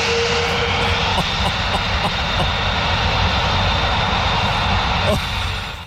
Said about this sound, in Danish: Men lad os prøve at høre, øh, hvordan det lyder, når det, ved nu, en, en jet eller en, øh, ved nu, en Boeing, øh, den øh, letter.